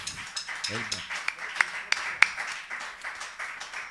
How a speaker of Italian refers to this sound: Oh, adesso io ti farei un applauso, ma diciamo, facciamolo un applauso